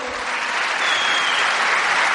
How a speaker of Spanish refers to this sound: Y denle un fuerte aplauso al señor Miguel Aguado que está sentado aquí con nosotros.